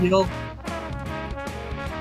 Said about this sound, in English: there's definitely like horns i don't know how well you can hear it but there's like a trumpet in the background right now is there some, some slide guitar there too? It's possible. I wouldn't be surprised. Okay, there's the like horn section.